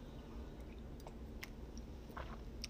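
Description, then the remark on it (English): Quiet mouth sounds of someone sipping coffee in the early morning: a few soft wet clicks and slurps scattered over a low steady background hum, with no talking. “Y'all know I'm sipping my coffee.”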